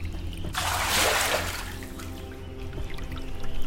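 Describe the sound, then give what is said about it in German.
A hissing splash of water, scooped by hand from a stream and thrown onto the face and over the head to cool off, surges for about a second and then fades into a steady low background of running water. No one speaks. “Ich äh, tauche einfach nur die Hände rein und äh, splash mir das Wasser ins Gesicht und äh, über den Kopf und so, einfach um mich ein bisschen abzukühlen.”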